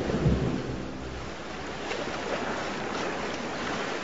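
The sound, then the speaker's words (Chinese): A thunderstorm at sea: a low rumble of thunder at the start, then a steady, dense roar of wind, rain and surging water that holds at an even loudness throughout, with no voices. “第二天清晨，暴风雨停了”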